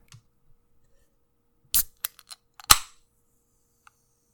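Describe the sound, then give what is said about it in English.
A drink can is cracked open: a few small metallic clicks from the tab, then a sharp pop with a short fizzing hiss, heard alone with no talking. “Do you want to give us a crack of the can for the transition noise?”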